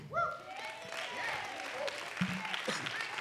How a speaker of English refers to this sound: Somebody clap your hands again.